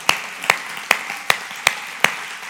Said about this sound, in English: He doesn't do it for applause. In fact, he would hate it right now if we gave him applause, but I think we should.